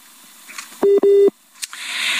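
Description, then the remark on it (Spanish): A cell phone's call-ended tone: two loud, steady electronic beeps in quick succession, the second slightly longer, followed by a soft click and a faint hiss, at the end of a live radio phone call with a reporter in the State of Mexico. “Bien, ese es adiós, ¿no? Pero, pero, del teléfono celular.”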